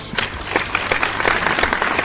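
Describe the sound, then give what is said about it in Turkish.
Applause from an audience, a dense, steady patter of many hands clapping at once, fairly loud throughout with no voices standing out. “Alkışlar.”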